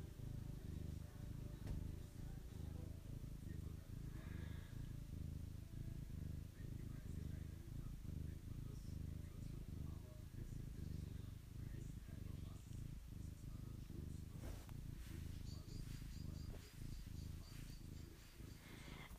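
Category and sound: animal, cat purring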